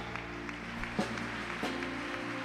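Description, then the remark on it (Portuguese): A church audience applauds Jesus in a steady, dense clatter of clapping that lasts throughout, with sustained low musical tones humming underneath and a few sharper bumps along the way. “Aplauda ele por essa verdade.”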